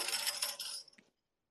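A tambourine jingles in one brief, bright shake, its metallic rattle shimmering for about a second before cutting off into silence, with no voices.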